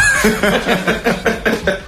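A chicken clucks in a quick, steady series of short, throaty calls, loud, with a faint background murmur underneath.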